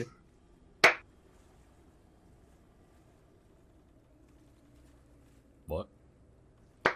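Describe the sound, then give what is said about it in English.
Slow, widely spaced hand claps, three sharp smacks several seconds apart, sounding really far away across a room over a low, steady background rumble. “like, just go across this room and clap.”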